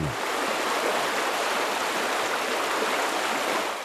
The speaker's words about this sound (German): Durch die rosa Röhre fließt ein reißender Fluss. Das Ganze ist der sogenannte Umlauftank. Offiziell heißt der Umlauftank 2 oder kurz UT2, eine Versuchsstation, um Schiffe zu testen. Betrieben wird er von der Technischen Universität.